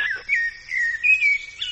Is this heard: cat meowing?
no